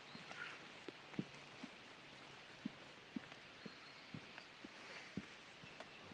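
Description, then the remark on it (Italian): Steady, soft hiss of rain falling outdoors, with a series of evenly spaced footsteps of someone walking through the rain at a walking pace. No one speaks. “vabbè proviamoci dai provo a tenere la mano sopra dobbiamo camminare in mezzo alla pioggia”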